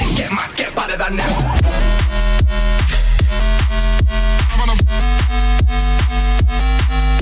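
A loud electronic dance track with a steady pounding four-on-the-floor beat, deep bass and sustained synth chords, playing on its own without any voices.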